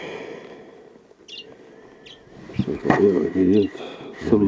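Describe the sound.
A desert sparrow gives a couple of short, high chirps over a low background rumble, followed by people talking.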